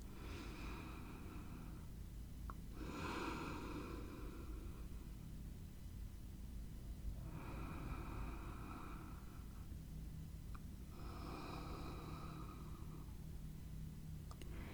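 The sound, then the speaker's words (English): Slow, deep breaths drawn in and let out during a guided breathing exercise, several long airy whooshes in a steady unhurried rhythm over a constant low background hum, with no talking. “Um, feel your stomach rise as you take a deep inhale and then slowly feel how your um, breath is leaving your body.”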